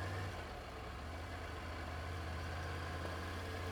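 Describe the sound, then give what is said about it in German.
The engine of a Triumph Tiger 900 Rally Pro Edition adventure motorcycle from Turatech idles steadily, a continuous low throbbing rumble with a constant level and no change in pace, with no one speaking. “Ich fahre hier eine Triumph Tiger 900 Rally Pro Edition von Turatech.”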